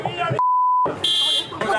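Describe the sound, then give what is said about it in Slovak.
A steady electronic beep about half a second long cuts through shouting voices during a scuffle at a public press conference, with a thinner, higher-pitched tone sounding briefly beneath the speech that follows; the beeping covers two supporters of the Smer party. “Pípanie, ktoré na videu počujete, patrí dvom náhodným podporovateľom Smeru, ktorí na verejnú tlačovku prišli tiež a do potýčky sa aktívne zapojili.”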